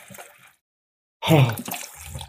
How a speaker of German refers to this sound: So, jetzt machen wir mal ein bisschen Wasser hier rein.